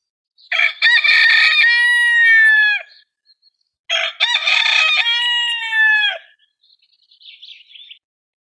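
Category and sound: bird, rooster crowing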